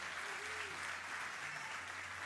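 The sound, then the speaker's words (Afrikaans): An audience claps together during a Sunday service at Lewende Woord Midrand church, in steady, dense applause that holds at an even level throughout, a continuous wash of many hands with no voices standing out. “Klap.”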